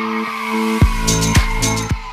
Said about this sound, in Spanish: Este sonido de Star Wars lo amo, porque indica que viene mi sección favorita. Sí, es la música que nos indica que comienza la sección La voz del estudiante.